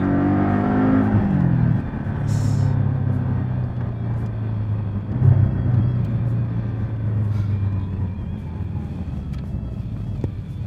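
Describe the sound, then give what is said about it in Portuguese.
A sports car engine growls loudly, its pitch sliding down as the driver downshifts, then a sharp rev blip before the deep engine note settles into a steady, rumbling drone. “Olha, você reduz. Pá!”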